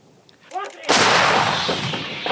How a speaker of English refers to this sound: Something rare is happening here over the hills, far into which these shells land.